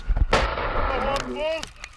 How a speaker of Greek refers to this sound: Ακολουθεί έκρηξη και στη συνέχεια χτυπάει το τάγκ και με αντιαρματικό όπλο.